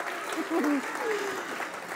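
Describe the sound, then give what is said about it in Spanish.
A church audience gives applause to the Lord, dense steady clapping filling the whole two seconds at a moderate level, with a few raised voices calling out over it. “Si va a dar un aplauso al Señor, nadie quiere aplaudir.”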